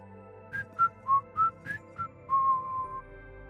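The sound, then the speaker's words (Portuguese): A girl whistles a short tune while dancing and writing musical notes on a staff: six quick, clear notes hopping up and down in pitch, then a final longer note held and gently fading, with no talking. “Enquanto a Mia lhe guardava a harpa e o pai a penteava, a Mia não parava de dançar, de assobiar e de escrever notas musicais numa pauta.”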